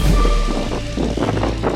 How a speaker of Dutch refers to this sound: Het waait hard, dat weten we. Het is heel onstuimig.